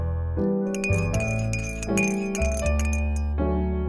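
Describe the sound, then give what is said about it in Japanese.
A glass of water set out as a chaser clinks several times in a slow, uneven series, each strike leaving a bright, sustained ringing tone that overlaps the next. The clinks are fairly loud and there is no talking. “あとチェイサーに水を用意してます”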